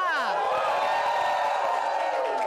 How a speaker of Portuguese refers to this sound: E, cara, veio bastante gente. Dá um grito aí, galera!